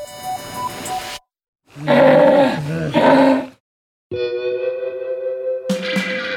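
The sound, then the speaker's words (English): A sea lion roars in a series of loud, harsh, gravelly barks and bellows, broken by short silences, ending in a longer, steadier honking call with no talking. “Sea lions are usually pretty chubby because they need a thick layer of fat to keep them warm in the cold water of the ocean.”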